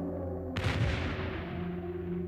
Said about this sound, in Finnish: Norbert Masurin odotellessa Himmleriä kuului valtava räjähdys, joka vavisutti Hartswalden rakennusta.